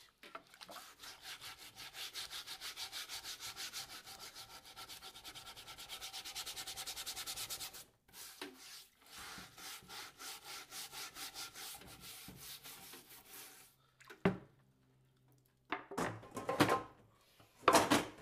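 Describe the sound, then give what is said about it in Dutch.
Rapid, rhythmic scrubbing strokes rasp across a new wooden cutting board, a steady back-and-forth scratching that pauses briefly, resumes, then breaks into a few short, louder bursts near the end. No one speaks. “Ja, het nieuwste snijplank dat ik hier nog moet schrobben, want er is zo eh, de pot met kassa's is een beetje naast gegaan, dus nu is ze wel goed ingekocht op de hout, dus moet ik extra goed schrobben eigenlijk.”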